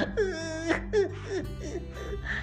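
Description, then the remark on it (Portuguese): A voice pretends to cry, letting out a few exaggerated wavering wails and sobs in quick succession, like a storyteller acting out the character Catatal crying in a tree. “Catatal estava chorando numa árvore.”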